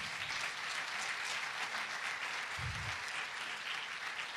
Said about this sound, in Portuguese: Dê um salve de palmas a Jesus.